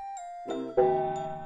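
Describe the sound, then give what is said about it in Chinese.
A wall clock strikes six times, resonant, bell-like chimes, each tone ringing on and overlapping the next, loud and clear with no voices. “挂钟敲响六下。”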